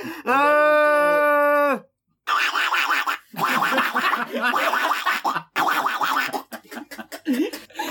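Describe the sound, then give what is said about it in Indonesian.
A person voices a loud, nasal, sustained honk imitating a duck call, then breaks into several seconds of raspy, choppy bursts that sound like laughter. “Tiba-tiba tiba-tiba manggil manggil bebek anjing.”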